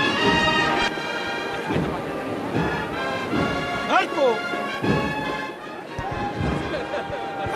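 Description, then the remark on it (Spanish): A handful of sharp, hard knocks from the hammer knocker of a procession float carrying a Dolorosa image ring out at uneven intervals over a dense, murmuring outdoor crowd in a sunny plaza, with people talking throughout. “Suena el martillo de nuevo”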